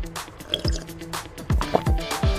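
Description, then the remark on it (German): A few wet, gulping swallows of a sip of water, each with a quick downward plop, spaced irregularly over a couple of seconds with no one talking. “Du bist zwar so winzig wie ein Sandkorn, aber ich spüle dich trotzdem lieber mit einem Schluck Wasser runter.”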